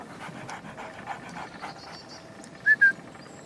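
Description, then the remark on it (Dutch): A female dog pants rapidly and steadily after running in a forest, its quick breaths forming a rhythmic huffing, followed by two short, loud high squeaks near the end. “Wil je samen rennen? Doe ik. Harder? Doe ik dat toch? Zo hard als jij kan. Kom, lekker het bos in.”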